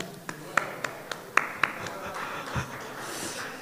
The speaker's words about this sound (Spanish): Hermano, un aplauso.